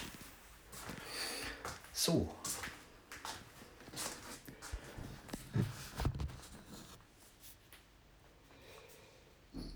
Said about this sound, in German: Und im Hintergrund hört ihr meinen Kater.